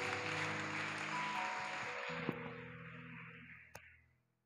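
A church audience claps together in a dense, steady wash of hands that gradually thins and fades out over about four seconds, with steady low tones sounding underneath.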